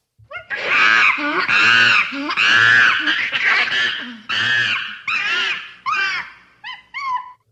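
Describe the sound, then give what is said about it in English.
A monkey from the 'monkey mind pong' experiment, hooked up to a video game, screeches unhappily in a rapid series of loud, high-pitched, wavering shrieks, about eight bursts in all, tapering into shorter, thinner squeals at the end. “And I believe we do have audio of this monkey.”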